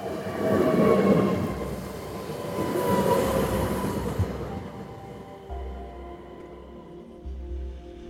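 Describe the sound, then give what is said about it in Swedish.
A train departs from the station in Örebro, rumbling loudly, its broad rushing noise fading after a few seconds into a low motor drone with steady humming tones. No one speaks. “Snart avgångstid. Dags att rulla vidare från Örebro.”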